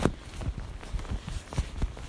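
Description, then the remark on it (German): Slow, squelching footsteps of a person in shoes tread through wet, muddy ground, each step a soft, low thud with a sticky squish, repeating at a steady walking pace. “Ich probiere jetzt nochmal dorthin zu gehen.”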